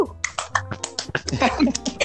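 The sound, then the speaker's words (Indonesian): Hands clapping in a quick, uneven run of sharp, crisp claps lasting about two seconds, the beats sometimes overlapping, over a low steady hum. “belum juga ngomong udah tepuk tangan saya yang jadi grogi.”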